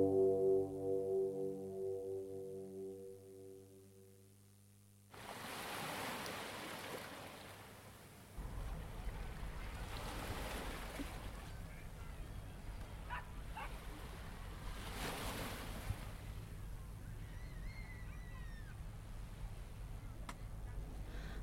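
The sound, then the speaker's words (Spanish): Ocean waves roll in with a steady hiss, swelling into broad surges every few seconds, after a short tonal musical intro at the start. “Ay, qué linda que está el agua, no sabes, amiga.”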